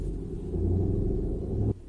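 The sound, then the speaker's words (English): A heavy truck rumbles steadily outside, a deep low-frequency drone with engine tones that holds for nearly two seconds, then drops off abruptly. No voices are heard. “Um, uh, can we wait for a second until this truck stops rumbling?”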